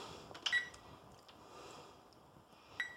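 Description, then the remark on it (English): A kitchen timer is set for 15 minutes for something baking in the oven, giving two short, high electronic beeps, one near the start and another a couple of seconds later, over quiet room noise with no talking. “I'm gonna put mine in, I'm gonna set it for, I'm gonna set my timer for 15, just in case.”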